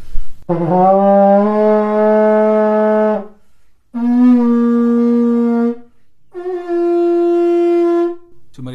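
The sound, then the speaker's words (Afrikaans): Three long, loud horn blasts on a single steady pitch from a horn of a single, very short pipe length, each lasting a couple of seconds with short pauses between, rich and brassy like a ram's horn, with no voices. “Dit was eintlik net een groot geraas. So dit was fisies soos 'n ramshoring klank”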